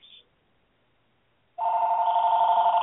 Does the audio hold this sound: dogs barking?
no